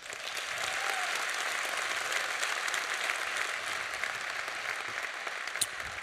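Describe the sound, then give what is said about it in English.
Sustained audience applause for Bishop Earl Fernandes at a gathering in Columbus, a dense steady wash of many hands clapping at even loudness for about six seconds, with no voices standing out above it. “I want to, if Bishop can hear me, another round of applause for Bishop Earl Fernandes.”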